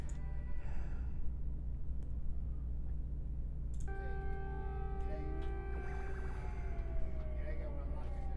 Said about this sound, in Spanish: Madre mía, las sirenas, ¿eh?